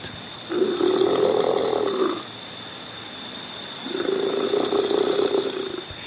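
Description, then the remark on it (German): Two long, low rumbling, hissing mating calls from a male crocodile, each lasting under two seconds with a short pause between, deep and gurgling with water bubbles, over a steady faint background hum. “Um die Weibchen, die Krokodilweibchen, zu beeindrucken, spritzen die Männchen Wasser aus der Nase geben fauchende Geräusche von sich und produzieren Wasserblasen.”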